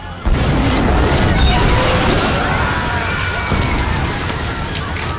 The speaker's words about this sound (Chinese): 两人慌忙逃离，结果爆炸再次袭来，瞬间把电梯上的人全部给震飞。